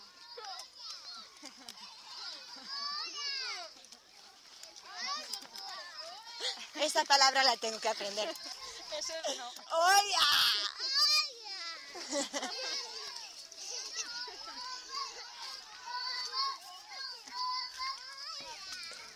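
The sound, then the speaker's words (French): A crowd of children playing outdoors in Africa, with overlapping high-pitched shouts, squeals and chatter rising and falling throughout, some voices louder than others. “Et les enfants partout. L'Afrique, c'est surtout des enfants partout.”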